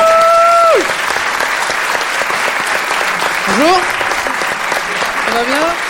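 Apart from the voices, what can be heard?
audience applause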